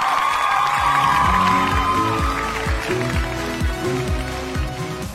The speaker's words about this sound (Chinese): 好，节目的最后还是要感谢这些默默付出的农业人们，为你们鼓掌。